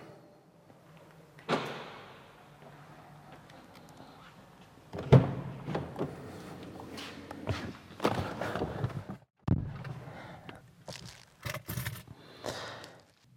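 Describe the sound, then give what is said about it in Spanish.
Footsteps, then the clatter of someone getting into a car after going down to a storage room: a door opening and thudding shut, with rustling, shuffling and a few sharp knocks and scrapes, no voices. “Bueno, pues como habéis podido notar, acabo de entrar en el coche, he bajado un momento al trastero a guardar un par de cosas y tenía que mirar un par de documentos dentro del coche”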